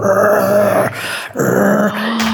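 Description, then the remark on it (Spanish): A person imitates a black dog's growl with two loud, rough, sustained rumbling bursts separated by a short pause, the second trailing into a lower drawn-out hum. “Y en eso el perro negro se nos puso adelante y les empezó a gruñir así, pero se erizó todo así como.”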